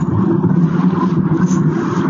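Steady low rumble of a car driving, heard from inside the cabin, a continuous muffled engine and road drone with no speech over it.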